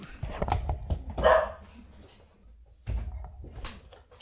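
A dog barks several times in short, uneven bursts, moderately loud, with a brief quiet stretch before a second round of barking. No one speaks.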